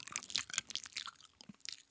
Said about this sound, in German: Nein, ich habe eh nur einen, einen, kurzen Einschub, weil du beim Schmatzen warst vorher.